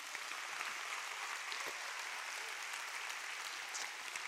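A large audience claps steadily and continuously, applauding Jesus during a morning church sermon, a dense wash of applause lasting several seconds without pause or voices rising above it.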